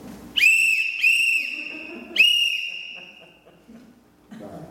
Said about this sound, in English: So if you get in trouble and you're out in the woods, you're lost, blow your whistle. Three consecutive whistles, and pause and then whistle some more.